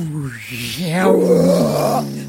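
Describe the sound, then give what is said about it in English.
A person uses their voice to imitate the roar of the sun as it comes over the horizon: one loud, sustained growling bellow lasting about two seconds, rising and swelling into a rough, raspy peak before trailing off. No one speaks. “sun just like roars as it comes over the horizon.”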